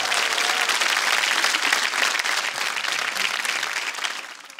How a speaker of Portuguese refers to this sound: Uma salva de palmas para a